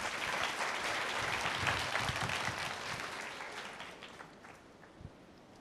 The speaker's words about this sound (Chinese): 还给他拍手，Come on。